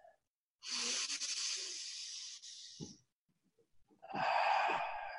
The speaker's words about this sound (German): Und tief in den Bauch atmen. Okay. Und dann fang an, tief in den Bauch rein zu atmen, in die Brust, in den Kopf und ausatmen.